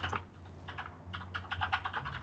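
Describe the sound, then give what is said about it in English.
Rapid, uneven clicking of keys on a mechanical keyboard, sharp clacks in quick bursts with a brief pause, moderately loud with a low hum underneath. “Man, that keyboard's really clicky there.”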